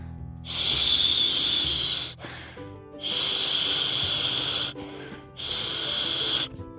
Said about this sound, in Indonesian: Eh, suara apa tuh? Seperti suara orang yang sedang mendengkur. Sudah siang begini kok masih tidur sih?